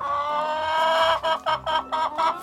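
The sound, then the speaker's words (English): A chicken squawks loudly: one drawn-out harsh cry, then a quick run of four or five sharp, rhythmic clucks, with no talking. “And let's just say that one particularly cantankerous chicken starts squawking.”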